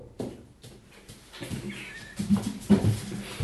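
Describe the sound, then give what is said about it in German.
A dog that has just stood up whimpers with a brief, thin high-pitched whine, surrounded by soft shuffling and movement noises; no one speaks. “Das findet mein Hund auch gerade, der meine Begeisterung spürt und deswegen aufgestanden ist.”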